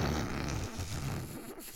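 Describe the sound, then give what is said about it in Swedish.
A fart, a low raspy rumble with a rough, buzzing texture lasting under two seconds, fairly loud at first and tapering off toward the end, with no talking over it. “Pruttade du?”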